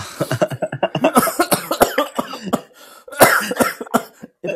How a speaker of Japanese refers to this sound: 今、今ちょっと咳しちゃって聞こえなかったんだけど。